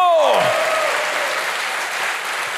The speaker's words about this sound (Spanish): Dele fuerte ese aplauso al Señor. Fuerte ese aplauso.